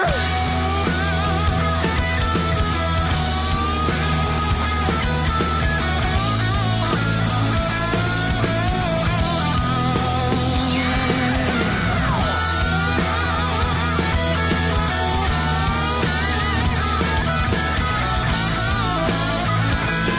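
A pop song plays steadily and loudly throughout, with a full band sound, sustained bass and dense bright harmonies, plus a brief swell or transition partway through.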